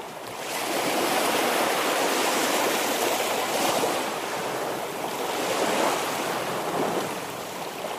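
Steady roar of ocean surf played as an atmosphere recording in a studio, broad and hissing, with waves swelling and easing in slow surges over several seconds. No voices, just continuous rushing water.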